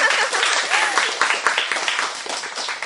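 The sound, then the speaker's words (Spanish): Loud, sustained applause from a crowd, a dense wash of overlapping claps that stays steady for the whole stretch, with some voices mixed into the noise, welcoming guests on a program: pioneer children from a semi-boarding school and their teacher. “a todos recibimos con un fuerte, aplauso.”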